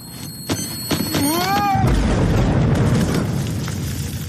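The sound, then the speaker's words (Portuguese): A voice mimics a rising, whooshing crescendo with a few sharp clicks, then bursts into a loud, sustained hissing roar imitating an explosion that fades slowly. “Para tudo, aí começa a vir um crescendo, tipo um.”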